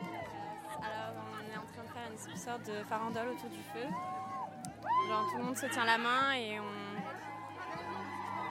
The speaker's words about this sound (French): et voilà, et on crie, on hurle, ça, ça, ça peut s'entendre. et tout le monde est masqué avec euh, chapeau, déguisé. Et voilà, et on célèbre et on, et on danse